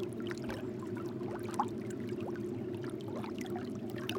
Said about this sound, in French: Sur les galets glacés, l'eau fait un son